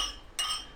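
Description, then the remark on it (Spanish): A single bright clink of glasses touching in a toast to 50 broadcasts, sharp and ringing briefly with a high metallic shimmer before fading under a soft background hiss. “Salud por esos 50.”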